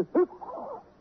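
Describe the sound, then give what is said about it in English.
A single sneeze: a sharp burst of breath, then a drawn-out voiced tail that fades after about a second, with no talking around it. “Uh uh, uh, uh, I got another one coming on.”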